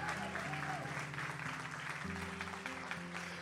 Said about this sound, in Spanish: Alguien que lo, si usted lo cree, tiene que darle un mejor aplauso al Señor.